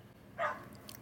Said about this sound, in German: Junge, hier ist einfach ein Hund am Rumschreien. Hört ihr das?